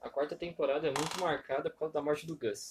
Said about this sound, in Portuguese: E eu peço desculpas por esse barulho de fundo, que eu acho que é a cadeira onde eu tô sentado Acho que eu tenho que trocar de lugar.